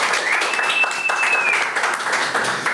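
An audience applauds steadily throughout, a dense and continuous wash of clapping, with a single high whistle rising and holding for about a second near the start.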